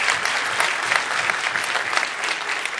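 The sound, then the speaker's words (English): Steady, dense applause from an audience for a man who graduated with a master's degree in biblical studies, many hands clapping at once in a continuous bright crackle that holds an even loudness for about three seconds with no voices. “Come on, give him a big hand of applause.”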